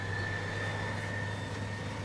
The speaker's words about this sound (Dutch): Oh, een dikke trekker.